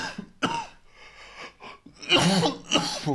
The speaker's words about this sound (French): à vos souhaits Pardon